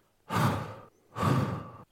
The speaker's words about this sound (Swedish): Så vad jag gjorde. du, du tog några djupa andetag. Precis. Alltså folk måste börja andas.